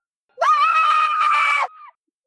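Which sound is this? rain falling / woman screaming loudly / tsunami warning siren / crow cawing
woman screaming loudly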